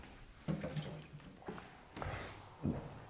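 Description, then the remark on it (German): Champagne is poured into a glass to refill it, quiet splashing and fizzing in several short bursts with soft clinks of liquid, no voices. “Ich schüttel das weg und fülle das nochmal auf.”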